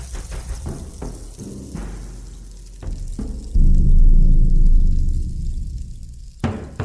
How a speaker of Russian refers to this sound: Какой интересный звук. Мы сразу будто слышим плавное движение песка. Оно создается дождевыми палочками, рейнстиками. Это такой полый деревянный инструмент с наполнением из мелких камушков или крупы.